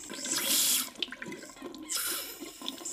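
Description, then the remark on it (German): Water gushes from a tap in two loud bursts, with splashing and clattering in between, as if filling something at a sink. “komm vom Wasserhahn weg.”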